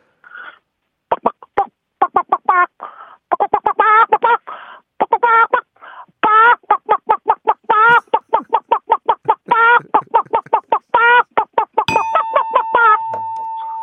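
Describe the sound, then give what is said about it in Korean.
A voice imitates chickens in a poultry farm coop, startled as the farm owner walks in, with a rapid, rhythmic run of loud clucks, almost like a beat, ending with a sustained steady electronic-sounding tone. “아 이번에는 닭장에 있는 닭을 예, 이제 그 양기장 주인이 들어갔을 때 예, 닭들이 이제 놀라서 막 소리 내다가 예.”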